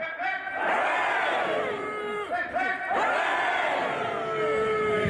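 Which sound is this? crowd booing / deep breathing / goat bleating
crowd booing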